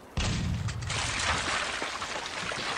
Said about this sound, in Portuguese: Um disparo.